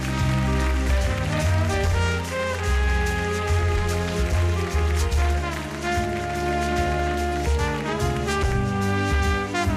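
A crowd applauds in a dense, continuous wash of clapping that stays loud and steady for about ten seconds, with sustained tonal sounds faintly beneath it.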